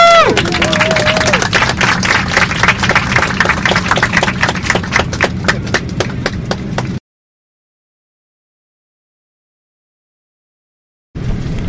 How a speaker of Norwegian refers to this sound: Og vi klapper, da. Woo!